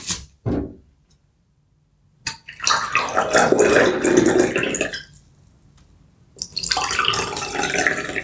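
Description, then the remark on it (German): Water pours in two bursts of a few seconds each, separated by a short pause, fairly loud, after a brief knock at the start. No one speaks. “Wasser.”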